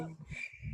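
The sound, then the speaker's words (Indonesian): A brief cricket chirp sound effect, a thin high trill over low murmuring voices, lasting under a second at moderate volume. “Udah tahu krik tapi disebutin juga loh.”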